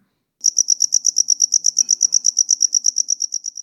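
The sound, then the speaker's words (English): A cricket chirps in a fast, steady series of bright, high-pitched pulses, about twenty in a row, loud against otherwise quiet surroundings. “Crickets are so well known for their songs, they're even named after it.”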